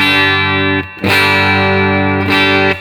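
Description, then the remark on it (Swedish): Electric guitar played through a Universal Audio Dream 65 amp-simulating pedal, with strong sustained chords rich in harmonics, slightly driven; the sound cuts briefly then new chords ring out loudly twice, with no talking. “Nu ska vi köra, vi kör Dreamen. Ja. Universal eh, Audio Dream 65.”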